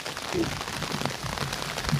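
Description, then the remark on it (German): Steady rain patters onto a surface, a dense, continuous hiss of drops with no clear pauses, moderately loud throughout. “Es regnet sie ein.”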